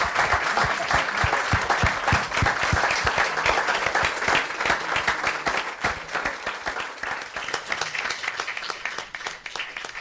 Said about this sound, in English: a great round of applause and thank you very much.